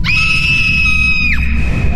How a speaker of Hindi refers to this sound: लेकिन वो किसी तरह हिम्मत करके अपने बिस्तर के नीचे झांकी और नीचे का नजारा देख जोर से चीखती हुई